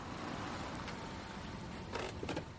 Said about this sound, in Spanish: De día, Jesse conduce su coche por una carretera. Para el coche y se baja.